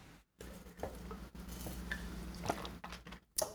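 Soft liquid sounds of water being poured into a glass, with faint drips, small clinks and a few sharp clicks against a quiet background. No one speaks.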